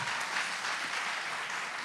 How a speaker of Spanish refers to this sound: ¡Qué impresionante! Un aplauso. ¡Wow! ¡Wow!